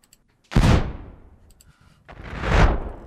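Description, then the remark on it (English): Two heavy explosion blasts, each a sudden loud boom that rolls off into a long, rumbling decay, the second arriving about one and a half seconds after the first. No voices. “Oh, explosions actually also work well.”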